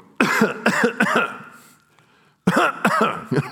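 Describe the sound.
A person imitates a fit of coughing heard from someone over the phone: three harsh coughs in quick succession, a short pause, then another burst of three to four coughs, loud, with no other sounds.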